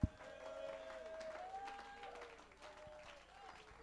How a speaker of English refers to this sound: Somebody ought to clap your hands and give God a shout of praise.